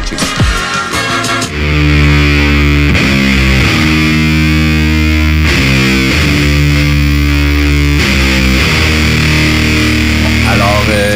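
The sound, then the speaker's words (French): A hip-hop track plays loud, with a heavily distorted, droning beat, thick sustained bass tones and sharp accents recurring every couple of seconds, opening with a brief buzzing intro. “qu'est-ce qu'on est en train d'entendre? Euh, qu'est-ce que c'est devenu, en fait? C'est du euh, ….”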